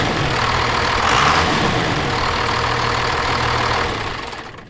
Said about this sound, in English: I love it. It's just a signature sound. Well, you know, it's uh, 400 and a 1,000. but it's uh, it was just cool having both of those trucks there. I'm like, oh man, I got to get a get the sound of, of those trucks in here.